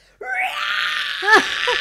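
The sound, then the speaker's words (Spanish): A voice mimics a hungry baby crying with its mouth wide open in the early hours of the morning, wanting to eat: a sustained high wailing cry that rises and bends in pitch, with a brief louder squeal near the end before trailing off. “bebé como un golondrino con la boca abierta llorando, que le ves hasta la campanilla de madrugada, es en plan, quiero comer.”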